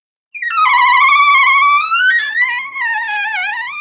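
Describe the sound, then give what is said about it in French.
A wooden door creaks open slowly in one long, loud, squealing groan that wavers in pitch for several seconds, with nothing else audible; a foley sound effect from a BBC sound library. “Alors, une wooden door qui creak.”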